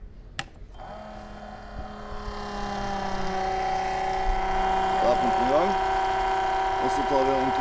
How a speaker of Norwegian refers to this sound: Her har vi en bryter. Vi har en pumpe fra Biltema som vi nå skal sette i gang. Ja. Så lar vi den gå et par sekunder for å høre hvordan den høres ut, og så innfører vi noen endringer eller noen feil da, på lille, det lille anlegget vårt her nå.